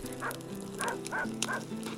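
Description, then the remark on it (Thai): A dog barks in a quick series of about four or five sharp, mid-pitched yaps with short gaps between them, heard over a steady low background hum. “เมื่อฝูงเหี้ยสำลักควัน มันก็พากันวิ่งหนีออกมาจากโพรง เมื่อออกโพรงที่สองก็โดนหมากัด”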